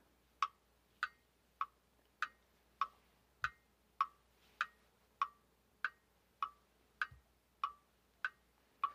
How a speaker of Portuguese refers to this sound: Sinta neste movimento o tic-tac do relógio.